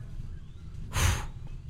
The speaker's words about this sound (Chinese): 哇，好大的风！你们听到了吗？